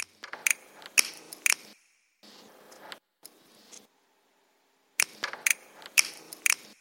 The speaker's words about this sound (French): Je rajoute des bruits de ciseaux que j'enregistre au micro